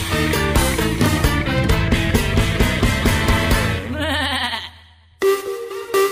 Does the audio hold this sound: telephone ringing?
no